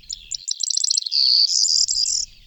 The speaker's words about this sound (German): wie die Grauammer, die gerade drüber sitzt und singt.